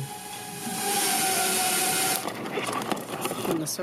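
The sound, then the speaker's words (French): A Wing delivery drone (Alphabet subsidiary) approaches and hovers with a steady, loud whirring buzz and faint tonal whine for about two seconds, then the hum drops away into softer rustling and scattered clicks as it unwinds its cord and drops a package in a garden. “Un léger bruissement se fait entendre, le drone est en approche, déroule son cordon et dépose le colis dans le jardin”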